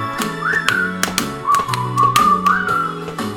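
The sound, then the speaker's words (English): A person whistles a bouncy, clear melody over a musical backing, with sharp percussive taps keeping a steady rhythm beneath the tune. No one speaks. “Come on, people, sing when whistle with me.”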